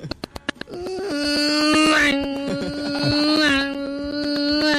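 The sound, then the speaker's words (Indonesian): A voice imitates a spinning power sander: a few quick clicks, then a sustained, buzzy mechanical whine that holds steady with slight pitch rises, loud for several seconds. “Amplasnya muter. Oh gitu. Yang kayak balapan F1 pak, gue berasa di Sepang itu kalau.”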